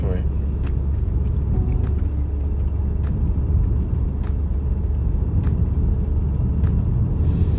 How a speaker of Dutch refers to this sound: Want ik rij nu al terug naar beneden.